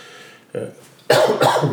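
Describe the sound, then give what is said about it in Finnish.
A short, muffled throat sound followed by a loud, harsh cough burst that rasps for under a second, with no talking. “Anteeksi hyvät kuulijat, mulla edelleen tämä yskä vähän niin häiritsee”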